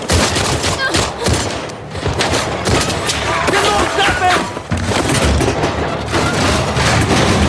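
Gunfire in a video game scene: a rapid fusillade of gunshots, many sharp cracks and booms firing in quick succession without pause, loud and dense across the whole stretch, with voices partly audible beneath the barrage.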